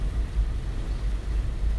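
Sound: car interior road noise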